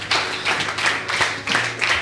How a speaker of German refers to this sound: Das klingt doch gut, oder? Zwar nur verhaltener Applaus, aber ich glaube, es ist gut.